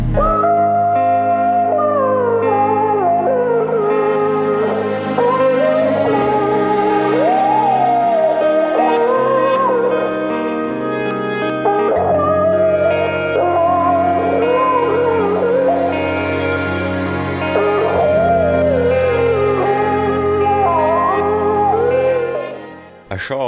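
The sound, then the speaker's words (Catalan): At the end of a song, a man's heavily processed voice, modulated around the range of an electric guitar solo so it sounds like an electric guitar, wails and bends in long, sliding howls over a steady, droning musical backing, loud and continuous throughout. “que sembla un udol és el resultat de modular la veu del … al voltant de les zones d'un solo de guitarra elèctrica”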